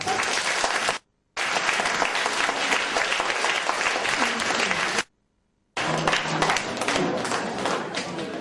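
Loud, sustained applause from an audience for ten team captains called to the front, a dense crackle of many hands clapping that breaks off abruptly twice into silence before resuming just as strongly.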